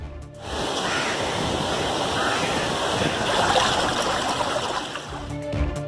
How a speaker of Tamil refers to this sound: கன்னியாகுமரி மாவட்டம் ஆழிக்கால் கிராமத்தில் கடல் சீற்றத்தால் ஆர்ப்பரித்த கடல் அலை